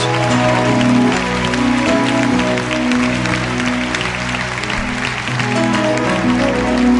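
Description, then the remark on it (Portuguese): A church audience applauds steadily for several seconds, a dense, loud wash of clapping that holds without letting up, while sustained keyboard chords play underneath. “Vamos dar uma salva de palmas para essa gente?”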